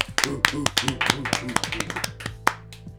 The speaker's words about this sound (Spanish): ¡Eh! ¡Aplausos!